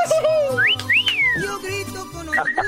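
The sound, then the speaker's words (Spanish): A crowd of local townspeople welcomes a guest guitarist with loud, shrill whistles, several long rising and sliding tones overlapping, above a steady low murmur of cheering voices. “Eh, pues, bueno, es que aquí tenemos a gente del pueblo y les gusta pues la grita, la bulla y bueno, así te dan la bienvenida”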